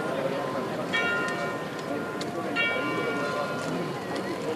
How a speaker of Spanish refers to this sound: Fijaros las campanas, ¿eh?